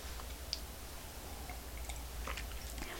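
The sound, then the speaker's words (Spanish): Someone takes a quiet morning sip of freshly brewed, unsweetened hot coffee on a rainy 28 December 2020, with soft slurping and small wet mouth clicks over a low, steady background hum. No one speaks. “Así que me voy a dar este sorbito mañanero.”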